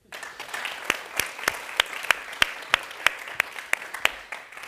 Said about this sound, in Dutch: Applaus voor Toria.